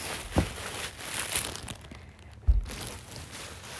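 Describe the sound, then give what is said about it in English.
Fairly quiet crinkling of plastic bags being handled and set as a divider between two people's candy, a continuous rustle broken by a couple of sharper crackles and thumps as the bags are moved. “okay, we're using bags as a divider because I don't want I don't want her candy to be that close to me, but she's insisting on it.”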